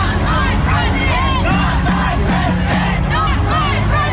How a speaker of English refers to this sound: Some 4,000 angry demonstrators over Trump's election victory taking to the streets. Officers confronted thousands of protesters in what police called a riot. Setting fires, taking their frustrations out on cars and buildings.